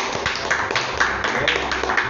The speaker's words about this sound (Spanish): Así que todos le tenemos que dar un aplauso